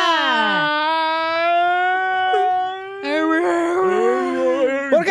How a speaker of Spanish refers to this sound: Llora en cámara lenta.